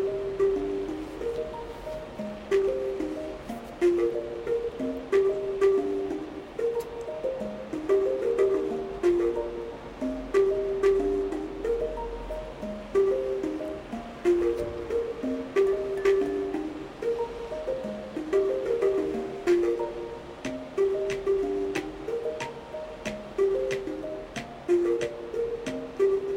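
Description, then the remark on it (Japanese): A homemade track made in GarageBand from pre-made loop samples rather than self-played parts plays on its own, a repeating mid-range melodic figure over a steady wash of texture with light percussive ticks, looping evenly at a moderate, constant volume. “ガレージバンドでねあの自分で弾いてとかじゃなくてあのループループされてる音源を使ってねこんな感じで。”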